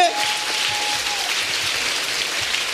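An audience applauds steadily for an audience member chosen to join a team: a dense, even patter of clapping that holds at the same loudness for a few seconds, with a brief thin high tone near the start.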